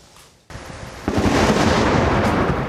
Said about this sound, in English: The lightning bolt split the sky, striking four people in Lafayette Park just across from the White House.